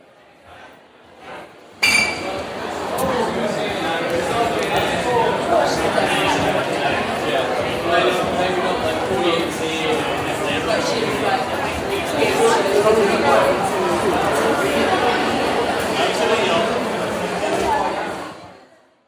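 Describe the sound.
Busy indoor crowd ambience at the Science Museum in London, around 10 p.m.: many overlapping voices, with occasional clinks and knocks, steady and fairly loud for about sixteen seconds before fading out.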